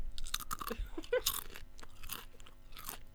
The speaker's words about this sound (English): Another thing that happened this week is that there has finally been the suggestion of a crunch free lady corn chip because women apparently hate the sound of crunching loud snacks in public.